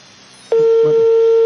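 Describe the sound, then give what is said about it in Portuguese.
A telephone ringing tone on a call: after a half-second of quiet hiss, a steady mid-pitched electronic tone comes in and holds unbroken and loud to the end, with faint murmurs beneath it. “tá chamando aí.”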